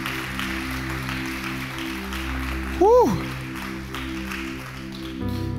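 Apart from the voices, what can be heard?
audience applause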